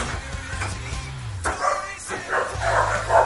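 dog barking

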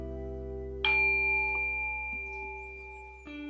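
bell being rung

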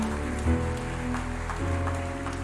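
audience applauding

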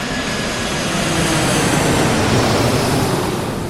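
airplane engine

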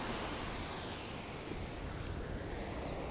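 ocean waves

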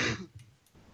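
cough

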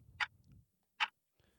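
clock ticking

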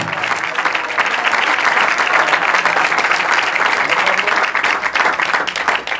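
audience applause

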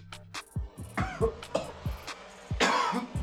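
coughing

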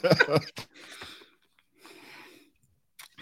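coughing

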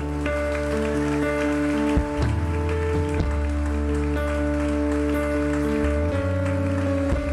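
audience applause

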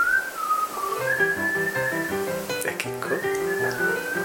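someone whistling

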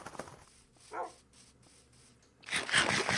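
dog barking

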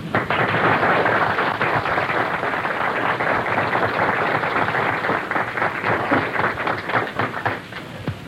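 audience applause

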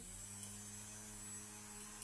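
electric fan running

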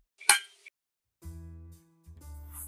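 glasses clinking

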